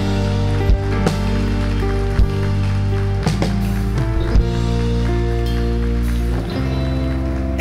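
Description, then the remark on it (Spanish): An audience at a Spanish-language church sermon applauds for God in a dense, steady wash of clapping lasting several seconds, with sustained musical chords ringing underneath and no voices. “Denle un aplauso a él.”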